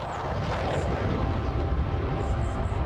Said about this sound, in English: Bloody planes!